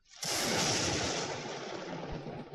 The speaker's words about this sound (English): So here's lightning strike.